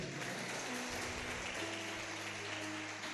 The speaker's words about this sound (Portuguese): Pode aplaudir, irmão.